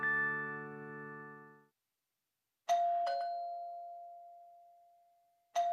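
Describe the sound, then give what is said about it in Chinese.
A doorbell chimes: a held, humming tone cuts off, then after a pause two quick bright dings ring out and fade slowly, followed by another ding at the end. No voices. “新的一天，从叮咚叮咚的门铃声开始了。”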